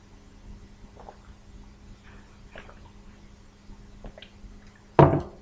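Someone sips water: quiet handling noises and faint movement over a low background hum, ending in a short, louder slurping gulp. No one speaks.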